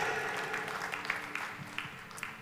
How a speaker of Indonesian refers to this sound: Coba lihat, tepuk tangannya kan kayak gini kan.